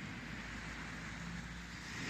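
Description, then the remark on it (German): Ocean waves rush in a soft, continuous wash, steady, with no voices and no distinct breaks between surges, heard from a seat by the sea on a sunny day with blue, turquoise water. “Ich sitze am Meer, könnt die Wellen rauschen hören, ich sage euch, es ist ganz blau, türkis, die Sonne blitzelt, blinzelt, glitzert.”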